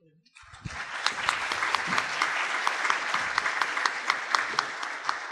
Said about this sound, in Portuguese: Então, nossas palmas expressam agradecimento, meu reconhecimento pelo trabalho tão intenso em 20 minutos.